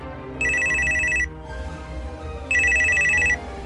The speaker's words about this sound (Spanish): En eso sonó su celular.